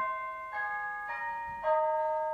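A house doorbell chime, rung as the pizza arrives, plays a short, cheerful holiday-style melody: a few bright electronic tones ringing out in quick succession, clear, with no one talking over it.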